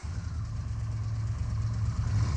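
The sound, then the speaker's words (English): A large bus engine idles with a steady, deep rumble and a constant low hum, fairly loud, holding even throughout with no voices. “I was never so happy to be on that bus.”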